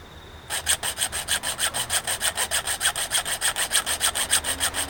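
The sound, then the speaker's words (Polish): A hand saw cuts steadily with rapid, rhythmic back-and-forth strokes, fairly loud, a rasping scrape repeating about five times a second with no talking. “Chodź teraz ty tutaj do piły.”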